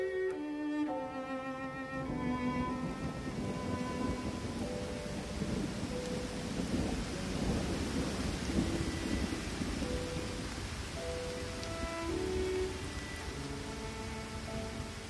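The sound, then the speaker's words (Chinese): Steady rain hisses throughout while deep thunder rumbles and swells, peaking mid-clip, with soft sustained melodic tones drifting over the storm. “下雨了。路是滑的”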